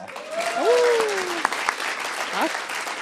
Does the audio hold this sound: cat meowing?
no